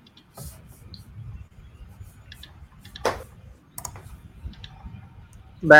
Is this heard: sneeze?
no